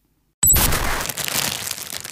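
A plastic shopping bag crinkles and rustles in a dense, noisy burst starting abruptly after a brief silence, with sharp high crackles that continue unevenly and fairly loud throughout.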